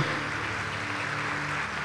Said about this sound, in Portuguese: Você pode aplaudir o nome do Senhor, amado?